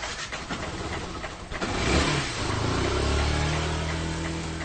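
A motorbike engine turns over after a few seconds of low rumble, then settles into a steady, fairly loud running hum with slight revving, as riders set off for Arnaha in Saptari, with no talking.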